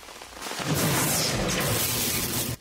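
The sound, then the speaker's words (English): A sudden, loud crack of thunder from a lightning strike, bursting in and then rolling on as a heavy, crackling rumble for a couple of seconds before cutting off. No one speaks. “You have a 90% chance of surviving a lightning strike.”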